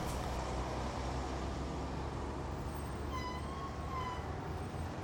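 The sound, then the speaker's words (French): Steady outdoor street traffic rumbles without a break outside bus stop 45 in Olnesobo on a sunny day, with trees around and three people waiting for the bus. A brief high whine, like squealing brakes, rises over the noise near the end. No one speaks. “On était dehors devant l'arrêt de bus 45 à Olnesobo.”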